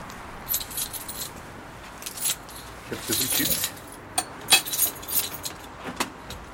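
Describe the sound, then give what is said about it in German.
Keys jangle and scrape in a door lock as a fire brigade man unlocks the door to the German Red Cross group room in the volunteer fire brigade building in Gaggenau, Germany, with bright metallic clinks and a few sharp clicks as the lock turns, over a low background hum. “Der Mann von der Feuerwehr schließt uns die Tür auf zum Gruppenraum des DRK.”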